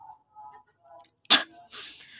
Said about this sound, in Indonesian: suaraku jadi eh, batuk-batuk gini deh